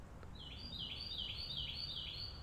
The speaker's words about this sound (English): Oh man, that is just a crisp, clear Carolina Wren song. Love it.